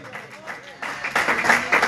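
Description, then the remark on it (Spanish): A voice speaks briefly, then an audience breaks into clapping for God at an evening church service, swelling quickly into a dense, steady wash of many hands, growing louder toward the end. “Alguien déle palmas a Dios en esta noche, hermano.”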